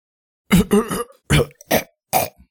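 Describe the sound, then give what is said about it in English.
A voice imitates a raspy, wheezing cough: a quick cluster of harsh hacks, then three separate strained bursts with short pauses between, fairly loud, with no talking. “It wheezes, laughs weakly,”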